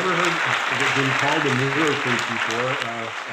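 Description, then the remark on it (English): Steady, dense audience applause welcoming an author onto the stage fills the whole stretch, loud, while a man's voice talks over the clapping throughout. “Ladies and gentlemen, please put your hands together and help me welcome fellow neurofreak and author of Unleash Your Trauma Mind,”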